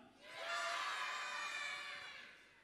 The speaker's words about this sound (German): Das heißt, wenn ich sage, wollt ihr feiern, dann schreit ihr ganz laut, ja, aus vollster Seele, okay? Während der ganzen Predigt. Wollt ihr feiern?